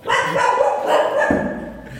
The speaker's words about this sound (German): So, das waren meine Hunde. Die sitzen nämlich schön brav neben mir und äh, schön brav, auf, während ich den Podcast aufnehme.